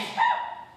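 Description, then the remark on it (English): A single sneeze: a quick, harsh burst of breathy noise that peaks early and trails off into a fading hiss, heard alone without any talking. “Bless you.”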